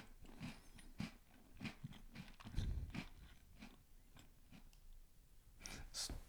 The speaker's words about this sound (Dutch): Echt, als ze smakt, zit dan veilig van de micro. Echt. Ah, dicht bij de micro, ver van de micro.